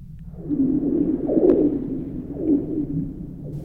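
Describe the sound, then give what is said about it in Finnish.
Ice on Lake Kallavesi singing on a hard-frost night under a starry sky, the lake ice bare of snow: hollow, eerie moaning tones swell and warble continuously, broken by a brief sharp ping midway and a second swell near the end, with no voices. “jos tulee semmoinen parinkymmenen asteen pakkanen, on tulossa semmoinen tyyni pakkasyö, niin ihan varma on, että silloin jäät laulaa”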